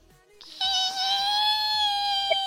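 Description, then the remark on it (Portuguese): A voice imitates screeching car brakes with a loud, sustained, high-pitched squeal held for about two seconds, steady and piercing, with a faint low rumble beneath it. “Ah, eu falei que eu, tipo, eu tô freando desde a quarteirão passada, sabe? Eu vim fazendo barulho de freio.”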